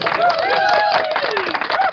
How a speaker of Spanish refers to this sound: Aplauso.